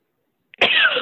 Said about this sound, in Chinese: 对不起，我一直在咳，今天我最近我在咳嗽